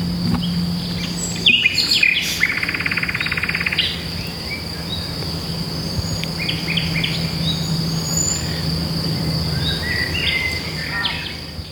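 A songbird sings short, varied phrases in bursts over a steady, high insect drone, with a brief pause between phrases. The song is moderately loud, with no voices present.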